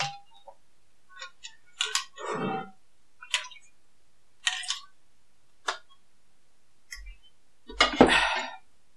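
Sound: drinking water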